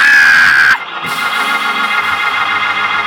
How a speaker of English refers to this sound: Everybody that got a relationship, scream, thank you, Jesus!